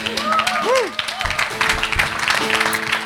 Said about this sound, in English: And I'm going to get you all to give them an even bigger clap soon.